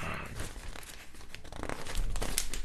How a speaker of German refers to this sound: Mensch, die Seiten kleben, aber wahrscheinlich hat Boje, wie heißt der eigentlich mit Vornamen? Johannes, glaube ich, ne? Vielleicht hat der äh, am Papier jetzt erstmal gespart.